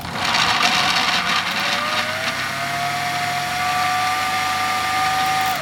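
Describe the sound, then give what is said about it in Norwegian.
An ordinary kitchen blender whirs loudly and steadily, its motor pitch sliding slightly downward as it settles into a constant high whine, with no voices. “Vi kan høre hvordan en eh, helt vanlig blender høres ut.”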